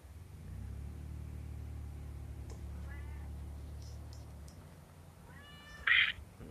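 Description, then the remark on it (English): A pet cat that keeps trying to climb up a person gives a soft, faint mew partway through, then a loud meow near the end, over a low rumbling hum that fades out before the final cry. “This cat keeps trying to climb up me.”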